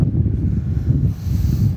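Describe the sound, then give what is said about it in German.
Steady, heavy North Sea wind buffeting the microphone, a dense low rumble with gusty fluctuations that fills the whole short stretch, loud, with no voices. “Ah, und der Wind hier, so schön.”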